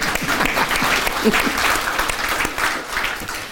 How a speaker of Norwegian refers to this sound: Um, ja, det blir jeg med å klappe for.